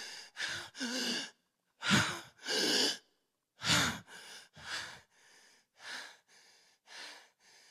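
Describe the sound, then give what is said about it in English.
A person dramatizing hanging on a tree gasps for breath in a string of ragged, heaving inhales and exhales, loud at first, then growing fainter and shorter toward the end. No words are spoken. “Surely I'm hanging, gasping for breath.”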